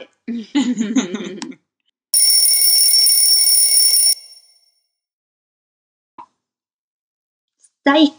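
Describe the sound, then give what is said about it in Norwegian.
A phone rings with a loud, steady electronic trill that lasts about two seconds, then cuts off. Someone talks briefly before it, a soft click follows, and talking resumes at the end. “det nå ringer det og piker det igjen.”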